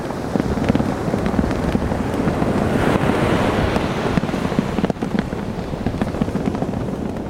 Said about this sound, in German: Klar, da hört man jetzt die Nordsee, man hört aber auch das Rasseln einer Fahne im Wind. Es war dort total stürmisch an dieser Stelle und das ist das letzte deutsche Transatlantikreis.